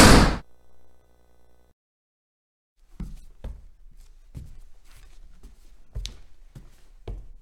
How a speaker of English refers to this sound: Suddenly, the gym door slammed.